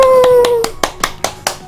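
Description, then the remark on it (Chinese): Steady, evenly spaced hand claps, about nine sharp slaps in quick rhythm, like a small burst of applause; a short sustained vocal hoot sounds over the first few claps. “掌声鼓励鼓励！”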